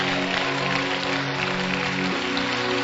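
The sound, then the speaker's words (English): A church audience claps hands steadily and densely for a few seconds to celebrate the Lord, a continuous wash of clapping over a sustained low musical drone, with no voices standing out. “Clap your hands and celebrate the Lord.”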